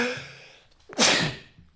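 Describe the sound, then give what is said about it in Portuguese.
A single sneeze: a brief breathy intake builds, then one sharp, loud burst of air bursts out and fades quickly. No one speaks. “Tenho que espirrar, desculpem.”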